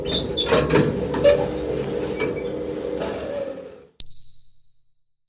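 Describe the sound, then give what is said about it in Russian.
A steady mechanical rumble of elevator doors sliding for several seconds, then a single bright arrival chime rings out cleanly and fades, fairly loud. “Голосовое сопровождение информирует о прибытии на этаж и открытии дверей.”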